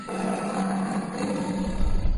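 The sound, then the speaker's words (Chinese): A big tiger walking through a dark, dense forest roars steadily for about two seconds, deep and loud, a sustained growling tone that swells slightly at the end, with no one speaking. “啊！我的天哪，是一只大老虎，它朝我们走过来了！”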